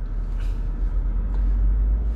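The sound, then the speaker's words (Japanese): Steady low engine rumble and road noise from inside a moving car driving behind a slow car, with faint hiss of passing traffic; no talking, just a continuous drone throughout. “あ何この車ちょっと前の車めっちゃ遅いんだけどあ”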